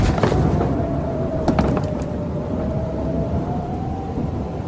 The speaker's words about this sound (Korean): 겁쟁이는 아니지만 천둥 소린 질색이에요.